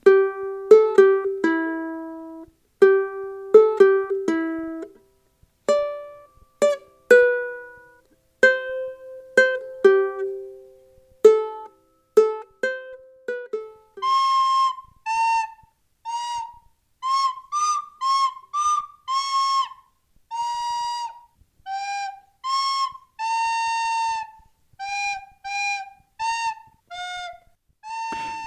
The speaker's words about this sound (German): Meine Söhne zum Beispiel, die wollen dann ihrer Tante die Geschenke zeigen, die sie bekommen haben, oder sie spielen Weihnachtslieder vor auf der Flöte und der Ukulele und das klingt dann so.